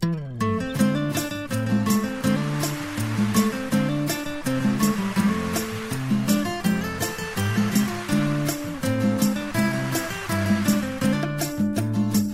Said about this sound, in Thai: เอาล่ะสบายใจกันต่อดีกว่าจัดเพลงเพราะๆให้ฟังนะครับ